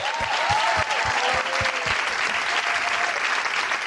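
An audience claps steadily for a few seconds, a dense wash of many hands with some cheering tones mixed in, loud and sustained throughout, as a contestant who works in politics is introduced.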